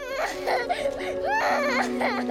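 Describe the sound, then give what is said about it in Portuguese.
A child cries loudly and continuously while saying goodbye to part of the family in a war-torn city attacked by Russia, with wavering, high-pitched wails rising and falling in close succession. “O choro de uma criança que, ainda sem entender direito, tem que se despedir de parte da família.”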